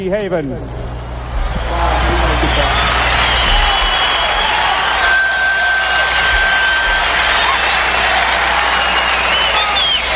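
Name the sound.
concert recording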